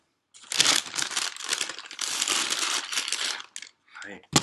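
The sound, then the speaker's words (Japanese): Loud crinkling of plastic packaging being handled, continuous rustling and crackling for about four seconds with short pauses near the end and one last sharp crinkle. “ちょこういうガサガサがさ案外こう拾っちゃうんだよねだからさっさとこのガサガサ時間終わよ”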